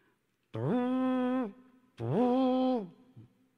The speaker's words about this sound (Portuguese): Essa corneta também está.